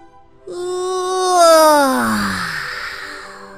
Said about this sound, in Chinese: 烙饼的香味儿终于把弗洛格弄醒了。弗洛格打了一个很长很长的哈欠。